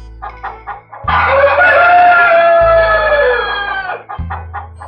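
Hens cluck in quick, choppy bursts, then break into a loud, drawn-out squawk lasting a few seconds before settling back into short clucks. No voices.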